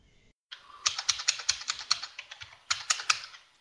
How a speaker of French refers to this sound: Qui martèle son clavier.